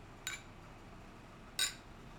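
glasses clinking

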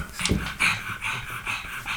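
dog panting and whimpering

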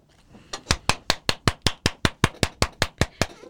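hands clapping

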